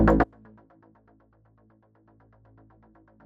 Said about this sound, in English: Ooh, look at you sneaking the music in.